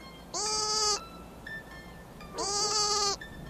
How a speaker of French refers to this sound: prend son souffle et soudain il se met à bêler de sa petite voix du plus fort qu'il peut.